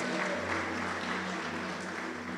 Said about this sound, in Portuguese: Aplauda ao Senhor, tem que dar honra a quem, tem honra, a, a quem se deve honra.